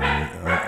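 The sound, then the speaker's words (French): The speaker's guard dog barks twice in quick succession, two loud, deep woofs with a short gap between them and no voices over them. “C'est mon chien, excusez, excusez-le.”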